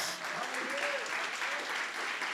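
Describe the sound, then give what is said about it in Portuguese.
An audience applauds the Lord, clapping together in steady, dense applause that holds at an even level throughout, with faint voices and a few rising calls mixed in beneath the clapping. “Quem crê nisso, aplauda o Senhor nesse momento.”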